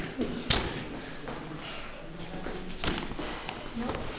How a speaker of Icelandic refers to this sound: Og það var að banka.